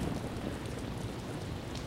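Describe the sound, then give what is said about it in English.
Steady, continuous rainfall from a storm hisses evenly for the whole moment, a dense wash of drops with a soft low rumble beneath, fairly quiet and with no voices. “Maybe by next week the storm will have cleared up.”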